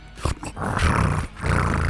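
Loud, rough snoring: a deep, rattling rumble that swells and holds, breaks off briefly, then returns for another long, growling breath. No one speaks.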